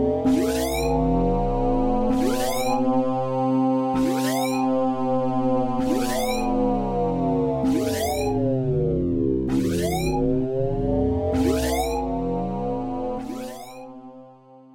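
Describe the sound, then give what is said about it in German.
A loud electronic spoiler alarm sound effect, played from a soundboard, plays alone, with sharp bursts repeating about every two seconds over wailing, sweeping synthetic tones, running steadily for about fifteen seconds before trailing off. “Ähm, genau, gibt es natürlich äh, als Service wieder unseren Spoiler-Alarm.”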